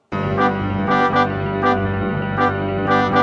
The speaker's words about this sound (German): Das das war nicht die lustige Musik für Olli den Clown. Das war die spannende Musik für Tamara, die Seiltänzerin, die hoch oben unter der Zirkuskuppel auf einem Drahtseil balanciert.